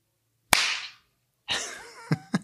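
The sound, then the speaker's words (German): A single sharp, loud hand clap rings out and decays quickly, followed after a pause by a brief voiced sound and two quicker, softer smacks. “da muss ich, muss ich jetzt einklatschen, weil sonst sind wir nicht mehr Sicher. synchron.”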